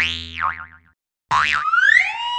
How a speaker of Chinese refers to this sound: 琪琪努力伸长手要抓住瓦力，可是瓦力实在坠得太快，一下就掉到蹦蹦床上，被蹦蹦床大力反弹。